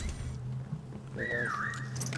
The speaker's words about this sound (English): You hear that whistle? So when you hear the whistle, you know one is close.